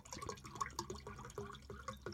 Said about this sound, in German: Gluck, gluck. Wasserpause.